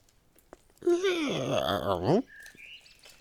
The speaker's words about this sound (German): Ja gut, dann mache ich das Fenster wieder auf und dann hoffe ich mal, dass der Spuk dann ganz schnell vorbei ist. Moment, ich mache das Fenster jetzt auf.